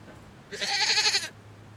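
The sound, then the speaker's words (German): A goat, just brought by car to a house, lets out one wavering, nasal bleat lasting under a second, clear, with only a faint low hum before and after. “Vor dem Haus hielt er an und ließ Estelle mit der Ziege aussteigen.”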